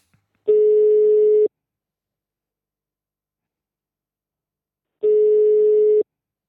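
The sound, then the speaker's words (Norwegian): Two steady electronic ringback tones, each about a second long and spaced several seconds apart, sound clearly against silence as an outgoing phone call waits to connect. “så jeg tok og ringte Isak eh, for å få tilgivelse”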